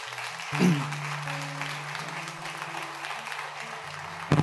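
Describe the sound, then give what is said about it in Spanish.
A standing audience applauds the Lord during a church service in a steady, dense wash of clapping that holds for several seconds, with sustained low organ-like notes droning and shifting beneath it. “Da un aplauso al Señor.”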